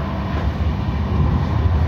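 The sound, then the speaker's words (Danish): A steady low rumble of a train to Nykøbing Falster rolling along the rails, heard from inside the carriage, with a constant loud drone and faint rhythmic clatter throughout. “Velkommen i toget til Nykøbing Falster.”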